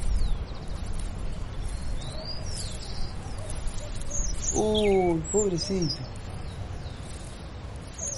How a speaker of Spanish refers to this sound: Miren, encontré un pajarito que está lastimado. ¿Qué hacemos? Ay, pobrecito. Lo tenemos que curar, dale.